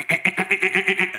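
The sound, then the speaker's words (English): A voice imitates a muffled guitar chord strum from a riff, where the chord is not held and the strings are not pressed properly: a quick, steady run of about eight dull, buzzy pulses, moderately loud, with no other sounds around it. “part of that riff is a muffled chord where you don't hold the chord or press the strings properly.”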